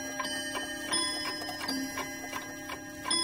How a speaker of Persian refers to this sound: ساعت پدر بزرگ زنگ زد بلند و مقدر